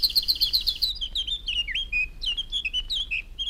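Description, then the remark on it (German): Historic field recording of wild birds singing outdoors in nature, not caged birds: a rapid series of high, bright chirps at the start, then varied whistled and trilling phrases continuing steadily, with a low rumble of background noise underneath. “Die sind alle draußen gemacht worden, also nicht von den gekäfigten Vögeln, sondern in der Natur.”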